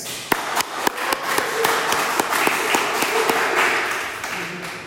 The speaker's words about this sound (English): So she's, we have to clap for people like that.